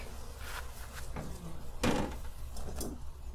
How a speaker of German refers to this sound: Jetzt machen wir auf, geben die Futterwabe weg.